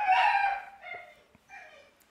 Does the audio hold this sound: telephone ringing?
no